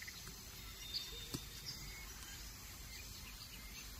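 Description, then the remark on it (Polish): Quiet forest ambience with a steady low hiss and rumble, broken by a few faint, brief bird chirps and a soft knock or rustle as a rubber band is attached to a microphone; no one speaks. “O, jak ja ściszę się na sekundę, posłuchajcie lasu przez sekundę a ja zaczepiam tą gumkę.”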